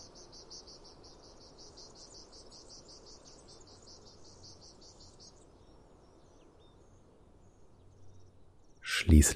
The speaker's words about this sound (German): Die Luft ist erfüllt von Vogelgezwitscher und dem Summen von Bienen